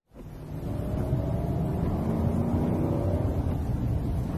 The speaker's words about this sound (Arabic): زادت السيارة من سرعتها وتعالى صوت المحرك